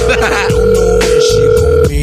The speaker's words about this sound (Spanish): Oye, contesta Oye, el teléfono, hombre.